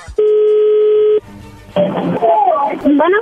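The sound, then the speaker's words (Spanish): A steady, loud telephone dial tone as a call is being placed holds a single even pitch for about a second, then cuts off; faint line noise follows before a voice begins talking over the phone line. “Perfecto, bueno, vamos a marcarle, no haga ruido.”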